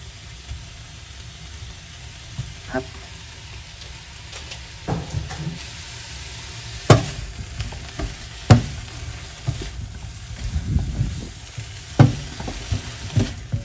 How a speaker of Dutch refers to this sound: Zoals je ziet kun je avocado ook bakken.